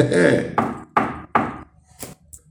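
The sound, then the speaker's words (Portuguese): Four firm knuckle knocks on a wooden door in a steady, slightly uneven rhythm, each with a resonant ring, followed by a couple of fainter taps. “Lembra, vou de novo, vou fazer mais uma vez, eu não faço mais que eu estou com dor no dedo.”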